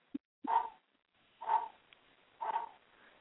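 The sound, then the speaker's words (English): A toy dog sitting on top of a toy dog house in a children's counting game barks three times in an evenly spaced series of short electronic woofs, each preceded by a small mechanical click, with no talking. “There's a little dog that sits on top of a dog house, and he's going to go woof woof or woof.”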